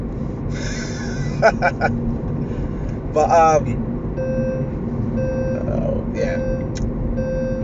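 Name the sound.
car driving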